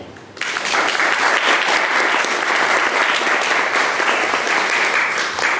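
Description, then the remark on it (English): An audience breaks into sustained applause for guests Posy Simmonds and Barbara Yelin, a dense, steady clatter of many hands clapping that starts abruptly and holds at a loud, even level throughout, with no voices over it. “So let's just give a round of applause to our, to our very special guests, Posy Simmonds from London and Barbara Yelin.”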